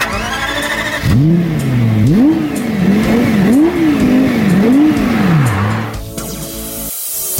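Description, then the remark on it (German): A 560-horsepower sports car engine roars to life and revs repeatedly, its pitch rising and falling in several loud surges before settling back down, with no talking. “Und zum Abschluss einmal 560 PS als Soundpaket.”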